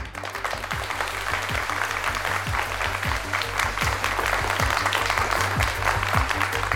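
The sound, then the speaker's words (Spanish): A live audience of dozens of people at the European Commission's stand at the Madrid Book Fair applauds steadily for several seconds, a dense, even wash of many hands clapping at constant loudness with no voices rising above it. “y aquí hay hoy decenas de personas que se han acercado para escucharnos, así que además de saludaros, lo primero que os voy a pedir es un aplauso para que se note que estáis ahí.”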